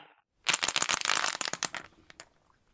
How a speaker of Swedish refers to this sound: Vi får en tvåa på tärningen. 1-0 till Luleå.